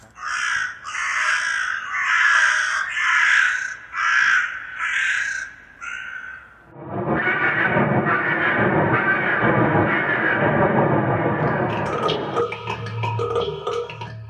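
A young crow or raven caws about seven times in a quick, loud, rhythmic series of harsh calls, followed by a dense, continuous wash of noisy sound.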